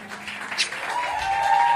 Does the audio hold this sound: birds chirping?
no